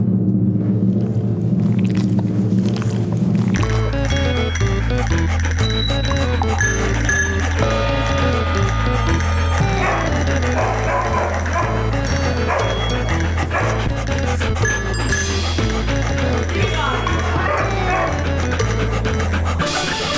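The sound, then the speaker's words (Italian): A loud, upbeat opening theme tune plays with no talking: a soft intro, then a steady thumping bass beat from a few seconds in, with dog barks mixed into the music throughout. “Ecco la sigla, signore e signori.”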